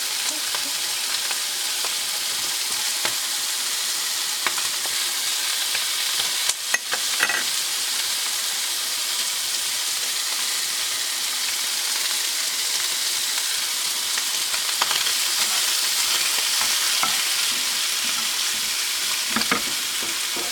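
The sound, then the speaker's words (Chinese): Fat renders out of pork belly sizzling steadily in a frying pan, a dense crackling hiss with occasional sharper pops and spatters, continuous and fairly loud throughout with no voices. “那个油啊一直被逼出来，听这个声音，疗愈呢，但要小心不要喷到。”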